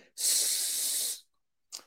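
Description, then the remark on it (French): A voice imitates a rattlesnake's hiss as the "s" sound of a breathing exercise: one long, steady, bright hissing breath lasting about a second, followed by a short, softer hiss burst. No speech. “On fait un peu le bruit du serpent euh, serpent à sonnette.”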